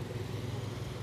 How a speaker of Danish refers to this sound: Jeg står nede på hovedvejen. Det er altså... Det, du kører forbi mig nu, det er en motorcykel.